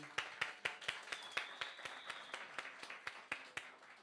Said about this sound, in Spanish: Ese aplauso para el Señor, ¿verdad que sí?